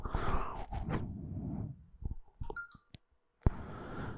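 A short electronic phone alert, a couple of quick high tones, from a phone that is still recording, sounds faintly amid rustling and handling noises, followed by a sharp click and a burst of hiss.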